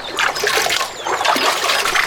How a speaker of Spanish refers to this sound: Y empezaron a tirar el agua y secaron el manantial.